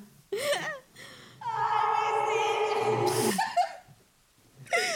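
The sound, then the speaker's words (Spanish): A voice imitates a ghostly wail with an added echo effect: short rising and falling cries, then a long, loud, sustained howl about two seconds long that cuts off, followed by another brief cry. “Pone eco para que se escuche acá más desgarrador.”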